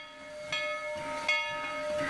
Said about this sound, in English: That's the sound of the choo choo train that's going to be leading us down this path. Choo choo. Choo choo.